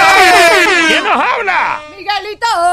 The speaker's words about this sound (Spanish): el camionero. Yes, eh, yes, la bocina